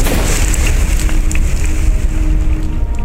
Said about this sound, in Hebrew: ואז אש!